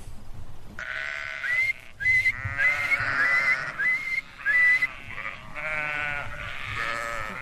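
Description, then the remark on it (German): A shepherd standing at his pasture whistles to his flock: several short, high whistles ring out in quick succession amid a chorus of loud sheep bleating outdoors from about 110 ewes and a few lambs, with no one speaking. “Wir hören ihn hier, wie er an seiner Weide steht und nach den Tieren pfeift.”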